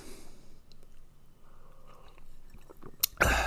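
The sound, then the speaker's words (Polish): Someone on a radio broadcast sips coffee: quiet, wet mouth and swallowing noises for a few seconds, ending in a sudden louder rustling burst. No one speaks. “No tak, radio nie znosi ciszy, a ja sobie popijam kawkę.”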